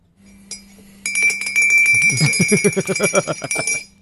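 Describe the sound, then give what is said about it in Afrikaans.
A spoon, called the 'geloofslepel' (faith spoon), is stirred on the Coffee Date radio show, clinking repeatedly against a cup in quick, rhythmic strokes, with bright ringing glassy tones and a low pulsing undertone building in the second half before stopping abruptly. “Die geloofslepel wordt geroer hier op date.”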